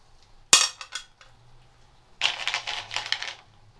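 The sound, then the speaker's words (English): Hazelnuts clatter into a metal bowl: a sharp ringing drop followed by a couple of smaller bounces, then after a pause a longer rattling cascade of nuts tumbling and settling, fairly loud. “Hazelnut, metal bowl.”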